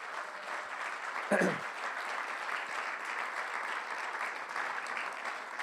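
A church audience claps steadily throughout for its pastors, youth leaders and volunteers, a dense even wash of applause, with a brief louder burst near the start.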